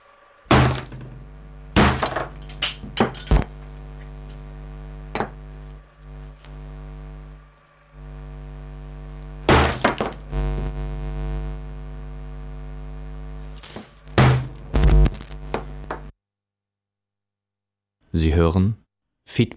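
Loud hammer blows smash into a loudspeaker, with clusters of cracking, crunching impacts over a steady low hum, a pause, then a final burst of strikes.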